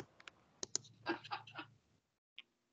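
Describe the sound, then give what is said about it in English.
Rapid, loud keyboard typing, a burst of sharp clacks and key taps over about two seconds, then a pause and one final click. “keyboard is super loud.”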